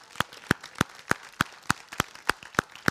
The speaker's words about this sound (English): Don't be shy. Let's give these folks a big round of applause.